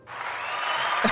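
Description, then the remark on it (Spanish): A short burst of steady, dense clapping, like a recorded applause effect, holding an even, hissy texture from start to finish, with a faint brief vocal sound near the end. “Ponte tú mismo los aplausos, por favor.”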